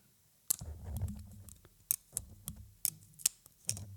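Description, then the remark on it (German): A metal spoon and fork that fold like a Leatherman snap together with magnetic closures, a series of about seven sharp clicks at irregular intervals, each bright and crisp with some low rattling between them, with no talking. “Und diese beiden Geräte kann man jetzt so magnetisch aneinander klicken.”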